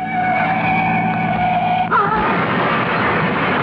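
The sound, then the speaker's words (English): A car's tires screech in a sustained, high-pitched skid as it is forced off the road, then a sudden loud crash gives way to a rough, noisy rumble as the car careens off the road, loud. “crashed and burning.”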